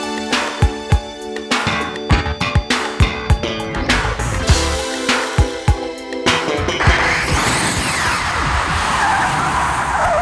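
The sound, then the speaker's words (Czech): A DeLorean time machine departing: tires screech and skid loudly with a revving engine and a series of sharp thumps, then the sound gives way to a steady, hissing rush as the vehicle speeds off. “Přenastavujeme náš DeLorean a uslyšíme se za 10 let.”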